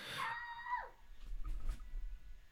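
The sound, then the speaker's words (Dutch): A child's shrill, piercing scream holds a high pitch for under a second, then slides downward and breaks off, leaving a low background rumble. “Hoorde je die kind schreeuwen?”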